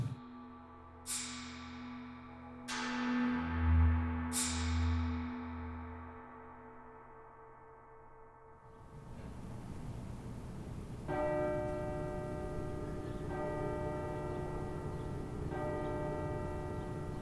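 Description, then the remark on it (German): A large tower clock bell two blocks away strikes five times in slow, evenly spaced strikes, each ringing out and fading with a long shimmering decay, followed by a steadier, fuller bell tone that pulses on in the background. “Die Glocke der Turmuhr zwei Blöcke weiter schlägt zum fünften Mal.”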